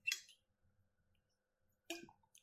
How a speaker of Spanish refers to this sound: déjame tomar agua primero.